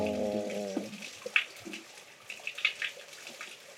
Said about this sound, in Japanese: 結構空間の音取るんでね多分ね水の音すっごいすると思うんですよなんか人間が聞くと水の音無視できる、うん、意識した時しか水の音聞こえないですけど、うん、機械で取るとすっごい水の音する